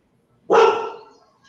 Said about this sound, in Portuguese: Gente, minha cachorra está fazendo um barulho danado aqui, o que é legal, normal numa live.